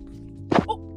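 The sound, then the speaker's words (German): A mobile phone drops and strikes a hard surface with a short, sharp thwack, followed a moment later by a softer secondary knock, over a quiet background hum. “Gott, mein Handy ist runtergefallen.”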